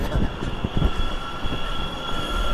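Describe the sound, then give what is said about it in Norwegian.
An electric skateboard rolls past behind at high speed, a loud, steady grinding rumble of wheels topped by a thin, high motor whine that holds throughout, with no one speaking. “Kommer det en sånn elektronisk eh, skateboard bak oss? Det var mye lyd i hvert fall.”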